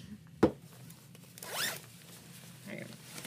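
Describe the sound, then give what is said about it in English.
A sharp click is followed about a second later by a single rising zipper pull, a quick raspy zip of clothing being undone and taken off, with faint rustling afterward. “Waste time taking this off.”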